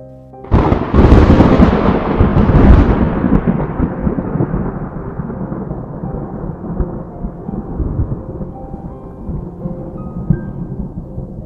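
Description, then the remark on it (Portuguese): A deep, powerful thunderclap bursts in loud, then rolls into a long, gradually fading rumble that lingers for several seconds, with no voices present. “acordei com o som de um trovão, já nas bordas abissais do fosso infernal, onde ecoam gritos infinitos.”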